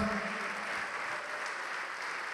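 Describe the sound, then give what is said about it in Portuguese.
A church audience applauds steadily as people come forward to give their lives to Jesus, a dense wash of many hands clapping at an even, sustained level throughout, with a faint voice briefly audible at the start. “Tá vindo mais, vamos aplaudir mais.”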